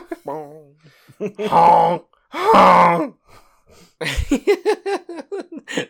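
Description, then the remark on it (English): A voice imitates horn honks: a few wavering tones, then two loud, drawn-out blasts, followed by a quick run of shorter honking bursts. “fill in for …... with the, the, the horn noises”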